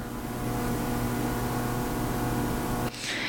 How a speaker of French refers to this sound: J'ai dépensé 700 balles pour un nouveau frigo qui fait un bruit du tonnerre de Dieu, ça vrombrit.